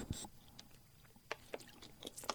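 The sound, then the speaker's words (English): A person takes a quiet sip of water: a few soft, wet mouth clicks and gulps scattered over a couple of seconds, with no talking. “I need to take a drink of water there.”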